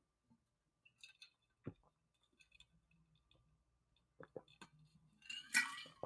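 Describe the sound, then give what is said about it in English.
Quiet sounds of someone drinking water: scattered wet mouth clicks and soft swallows, a faint clink of a glass, then a louder breathy gulp or exhale near the end, with no talking. “Oh, you drinking water.”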